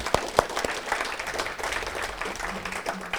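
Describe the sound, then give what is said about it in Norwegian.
An audience at a meeting applauds steadily to thank a person, a dense patter of many hands clapping at once, with a few sharper individual claps standing out at the start and a faint murmur underneath. “Så jeg tror vi tar en liten applaus jeg”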